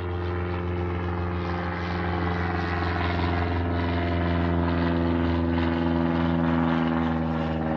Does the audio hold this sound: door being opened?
no